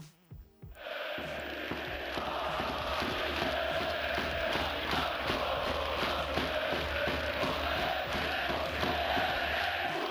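Widzew Łódź football fans chant together in their stadium in Łódź, Poland, singing 'whether you win or not, I love you anyway', a loud, dense roar of many voices sustained throughout, with a steady rhythmic pulse like clapping or stamping beneath the singing.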